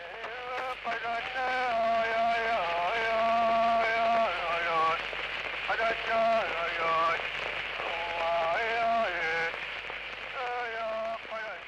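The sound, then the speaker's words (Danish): A high, quick-sounding singing voice carries a wavering melody in short phrases over constant hiss and crackle, an old archival recording running far too fast; how the drum was beaten underneath is indistinct. “Men det du kan høre, og, og det er ovenikøbet en optagelse, som kører alt for hurtigt, det er så øh, ikke så tydeligt, hvordan man har slået på trommen, men du kan høre sangen.”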